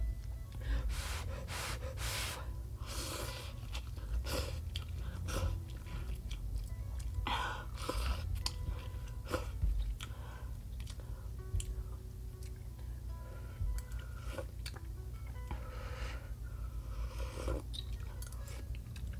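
Crunchy chewing of fried chicken, with repeated moist crackling bites and smacking in an uneven rhythm for the whole stretch, plus occasional sharp intakes of breath; no one speaks.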